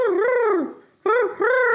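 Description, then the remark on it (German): A person imitates a pigeon cooing with a long warbling hoot, a short pause, then two more rounded rising-and-falling coos, fairly loud. “Eine Taube macht.”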